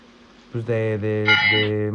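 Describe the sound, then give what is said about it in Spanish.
A bell rings out after a brief hush, one loud, sustained ringing tone rich in overtones that holds steady and shifts slightly brighter partway through, with no talking over it. “¡Qué rica campana!”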